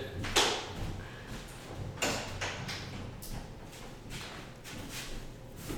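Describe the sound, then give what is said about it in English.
A door blown open by the wind swings open with a sharp bang, followed by several irregular knocks and rattles as it shifts and bumps against a low background rumble. “sorry my door opened, the wind.”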